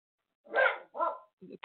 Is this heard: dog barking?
yes